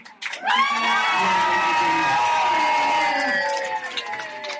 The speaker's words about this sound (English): Um, please give a round of applause for my co-commentator,